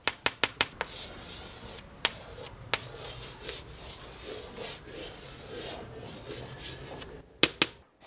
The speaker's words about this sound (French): C'était le son d'une craie sur le tableau.